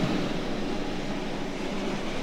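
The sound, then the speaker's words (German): A train rumbles steadily through a tight track curve between the east-side platform ends and the Hohenzollern Bridge, with a broad, continuous roar and a faint metallic hiss from the wheels, and no voices. “Ziemlich genau da, wo halt dieser enge Gleisbogen ist, was man auch so ein bisschen hören kann.”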